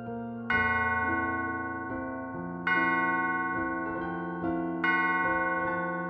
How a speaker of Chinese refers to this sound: 当钟声响起时，她又从容地走回房间，准备熄灯睡觉。